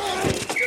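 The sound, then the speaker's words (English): Football pads collide in a quick, dull thud, a short padded impact followed by a second softer knock, heard over a low background hum. “The collide of football pads.”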